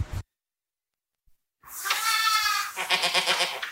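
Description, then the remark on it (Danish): Goats bleating on a farm in the countryside of Normandy, France, where 24 goats are kept: after a moment of silence, several wavering, nasal bleats overlap loudly and continuously for about two seconds, with no one talking. “Øhm, et andet sted ude på landet i Normandiet, der møder jeg så øh, Camille, som øh, har 24 geder, og mener, at de øh, hver især er vigtigere end det her franske præsidentvalg.”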